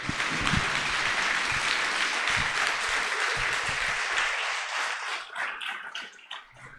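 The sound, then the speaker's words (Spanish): A church audience breaks into sustained, dense applause, a steady wash of many hands clapping that thins out and fades toward the end. “A veces, debo un aplauso a Dios por la vida, ellos dos.”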